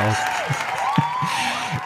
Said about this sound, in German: Applaus ist viel besser. Applaus, komm. Erstmal so ein Applaus. Ein Applaus, ein Applaus für unseren äh, geheimnisvollen Gast.